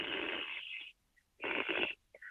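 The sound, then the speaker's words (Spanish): Two bursts of gas hissing through a regulator from a gas tank into a fermenter during forced carbonation, each under a second long with a short silent gap between, fairly loud with a breathy, rasping texture. “están haciendo eh, carbonatación forzada de esta manera, van a sentir el ruido, el hissing, como se le dice, el ruidito de que está pasando el gas del tanque al fermentador.”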